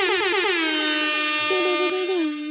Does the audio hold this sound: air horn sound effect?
yes